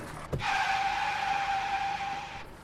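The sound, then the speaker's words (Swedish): A car skids to a stop on gravel, its handbrake pulled as it almost drifts, spraying gravel everywhere and stopping about 5-6 meters in front of a motorcycle: a loud, steady screeching hiss lasting about two seconds before cutting off abruptly, with no voices. “Försöker liksom eh, drifta nästan, så du? Bara bränner ja. fram där.”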